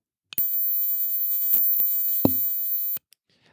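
A lighter gives off a thin, high-pitched whistle over a steady gassy hiss for about two and a half seconds, with a single soft knock near the end.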